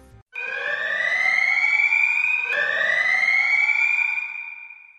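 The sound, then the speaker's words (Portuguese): A loud spoiler bell sound effect: two long, rising, wailing tones, one after the other, each sweeping slowly upward in pitch with a bright, buzzy edge. No one speaks over it. “E agora, então, acho que é uma pergunta mais também toca, toca o sino de spoiler de novo aí,”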